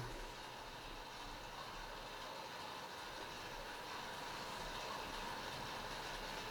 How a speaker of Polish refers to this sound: Kaseta jest 90, więc trochę to trwa. Właśnie przewinęło.